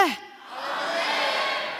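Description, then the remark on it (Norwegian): A church audience shouts loudly together, a broad roar of many voices that swells after a brief falling cry and holds steady to the end. “Skal vi ta det skikkelig høyt, eller?”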